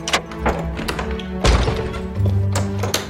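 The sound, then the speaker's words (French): Police pounding heavily on an apartment door: several dull, irregular thuds with one especially loud bang in the middle, with no one talking. “Ouvrez Ouvrez cette porte ou nous l'enfonçons Qui est là Police”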